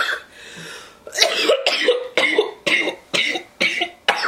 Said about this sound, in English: We can't even give that shit no cough level today because there's too much shit going on in that blunt.